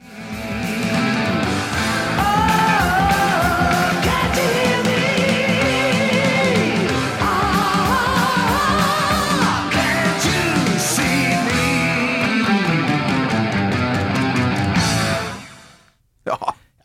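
A loud, dense heavy metal song with driving guitars and sung vocals plays through its final bars, then cuts off and decays, leaving a short burst of sound after a brief gap.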